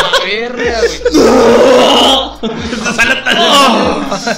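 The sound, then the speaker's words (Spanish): A voice loudly imitates vomiting, with gagging, strained retching sounds followed by a long, harsh heaving burst, then more choked, gurgling retches, forceful. “has, y que has hecho ruido, güey. De vomitar así.”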